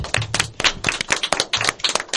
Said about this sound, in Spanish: Un aplauso por ellos, chicos.